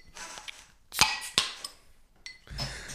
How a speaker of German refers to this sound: Wir öffnen es, aber warum wir das trinken, dazu später mehr. Also einmal die Buddeln auf.